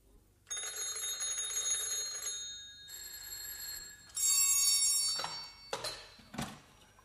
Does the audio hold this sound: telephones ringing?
yes